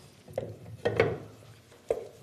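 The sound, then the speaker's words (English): A lid is fitted onto the top of a mould by matching up two cut-out parts, with a few sharp plastic clicks and knocks, three or four distinct taps spread unevenly over a couple of seconds, with a soft scraping rattle between them. “So now this part is really secure and we can now put the lid on the top. And there are two cut out parts here and that's how the lid fits on.”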